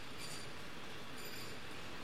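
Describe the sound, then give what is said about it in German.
Dense, steady mechanical din of many machines and apparatus droning and rattling together on a chicken processing line, workers standing close together, with faint high-pitched whines flickering above the constant roar. No voices are heard. “Aber in dem Dröhnen und Rattern der vielen Maschinen und Apparaturen lässt sich kaum noch der engste Nachbar verstehen.”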